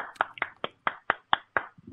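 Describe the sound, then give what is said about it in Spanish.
Steady clapping, about eight sharp claps in an even rhythm, fairly loud and crisp, with no voices over them. “No tienen que aplaudir, no es necesario, ¿para qué?”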